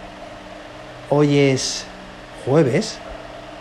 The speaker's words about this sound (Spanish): Hoy tenemos un episodio muy interesante porque, bueno, en primer lugar estoy grabando desde la propia habitación del hospital. No sé si se oye el ventilador industrial de fondo, seguramente se oiga.